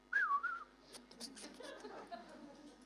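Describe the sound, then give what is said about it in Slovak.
A person whistles a brief, wavering two-note tune, lasting about half a second, followed by low, indistinct vocal sounds and light chuckling. “Ešte som chcel zapískať.”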